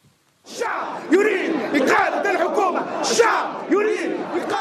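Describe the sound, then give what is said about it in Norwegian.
A large protest crowd in Tunisia chants loudly in unison during the Tunisian revolution, many voices shouting together in repeated rhythmic bursts with a dense roar of voices between them. “Dette er lyden av den tunisiske revolusjonen.”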